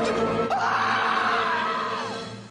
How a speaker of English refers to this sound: Leave your message at the sound of the shriek please don't.